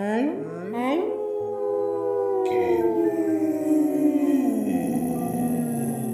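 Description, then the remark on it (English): A chorus of overlapping, eerie howls from snow ghosts all around rises and slowly falls in long wavering tones, with a dog's howl mournfully joining in, loud for the whole stretch. “The snow ghosts all around you join in a howl.”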